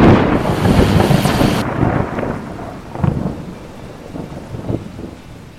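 A thunderstorm with heavy rain pouring steadily over the greater Boston area in New England as a cold front with high winds pushes through, opening with a loud roll of thunder that fades into a dense downpour broken by a few sharper crackles. No voices.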